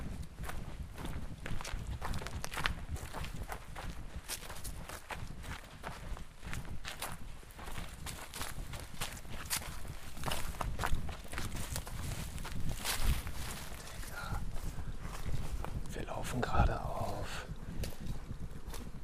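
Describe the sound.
Steady footsteps walking along behind garages to check out the next spot, at an even pace, a continuous run of crunching, scuffing steps that lasts the whole stretch, with faint voice sounds now and then beneath them.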